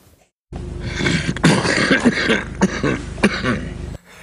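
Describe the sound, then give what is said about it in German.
A voice imitates the raspy, strained coughing of an old man in a wheelchair who coughed whenever he had to say something: a continuous throaty, wheezing sound broken by four or so sharp cough bursts at a steady rhythm, fairly loud. “ich bin mir eigentlich sicher, dass der das ist, weil der saß immer so in seinem Rollstuhl und hat immer so gehustet, wenn ja, er was sagen musste.”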